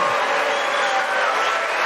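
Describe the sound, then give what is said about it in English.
A large audience boos loudly and steadily, a dense wall of crowd noise that holds at the same level throughout with no single voice standing out. “and you know, this is the great thing about this country booing is allowed, but it doesn't change the truth.”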